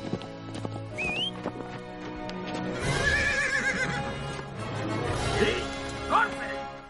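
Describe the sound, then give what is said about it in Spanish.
A black horse whinnies twice in shrill, wavering bursts while hooves clip-clop steadily underneath, as a gunman drops onto its back, set against a busy, fairly loud background. “El otro cae del caballo y el pistolero se deja caer sobre el caballo negro.”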